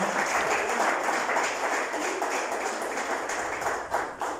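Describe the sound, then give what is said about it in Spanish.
An audience at a morning church service applauds for the Lord Jesus in a steady, dense wash of clapping that holds at an even loud level throughout, with no voices standing out above the crowd. “Denle un aplauso al Señor Jesús, por favor, esta mañana.”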